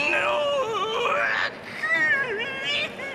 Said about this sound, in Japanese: 向こうの「ディテクティブコミックス」と書かれた扉の中からうめき声が聞こえますよ